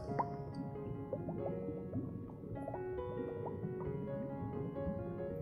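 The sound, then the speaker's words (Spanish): River water runs steadily, a continuous bubbling flow full of small gurgles, drips and plops. It stays at an even level throughout, with no voices. “Cuando viajo en mi bote, me gusta escuchar al río.”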